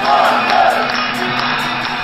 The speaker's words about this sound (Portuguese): com os jotinhas populares a cantarem nananana, e em vez de gritarem Thunder, gritavam Portas!